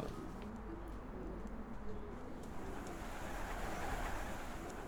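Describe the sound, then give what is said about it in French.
Many pigeons, mostly males, coo together in a pigeon loft in a low, steady murmur, their overlapping calls forming a constant warm burble, with faint rustling and brief higher chirps above. “Ça, c'est les pigeons de ce, pigeonnier-là.”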